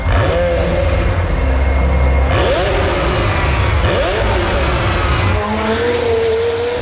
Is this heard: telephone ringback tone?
no